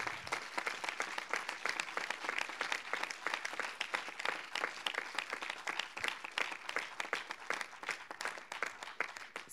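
An audience breaks into sustained applause, many hands clapping in a dense, steady patter with no voices rising above it for the whole stretch.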